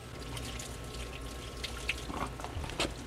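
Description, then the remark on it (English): Water pours steadily from a jug onto a surface to rinse it off, at a transmitter site out in the woods with no running water, a soft continuous trickle with a few brief splashes near the end, fairly quiet, with no talking. “Now uh, we'll let that soak for a while, then rinse it off and apply some more.”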